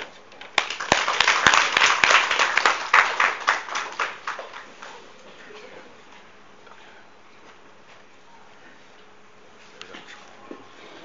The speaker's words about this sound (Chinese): 我们下面就用热烈掌声欢迎。